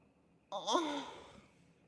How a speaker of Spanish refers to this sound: Yo ya tengo el gemido preparado para ese momento, mirá, tipo.